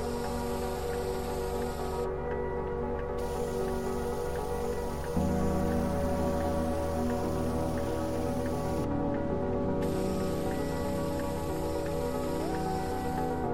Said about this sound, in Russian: Профи переходит к следующей стене. Он продолжает распылять краску цвета зеленой мяты, направляя распылитель от потолка к полу.